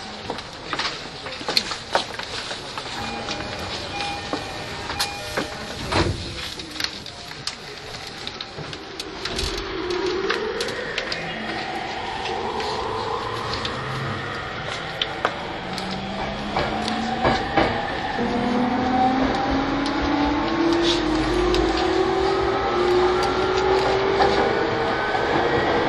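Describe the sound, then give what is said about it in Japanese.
An E231 series train at platform 3 shuts its doors and departs: scattered clunks and clicks at first, then electric motor tones sweep steadily upward in pitch over a constant rumbling hiss. “3番線ドアが閉まりますご注意ください”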